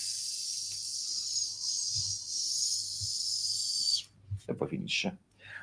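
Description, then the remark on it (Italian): A steady, high hiss of air escaping a deflating balloon runs for about four seconds, then cuts off abruptly and a person starts speaking. “come se si stesse sgonfiando un palloncino.”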